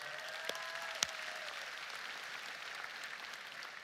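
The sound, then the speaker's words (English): Steady applause from an audience for a couple's 23rd wedding anniversary, a dense patter of many hands clapping continuously at moderate loudness, with a couple of sharper claps standing out near the start. “All those applause are for you, sweetheart.”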